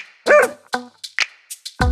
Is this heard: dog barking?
yes